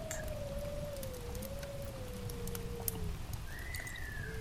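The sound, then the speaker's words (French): A steady crackle and hiss of a burning wood fire, with scattered pops, under a soft, sliding tonal hum that drifts higher near the end. No one speaks. “Laissez simplement la tension disparaître, s'évaporer au son du bois qui crépite.”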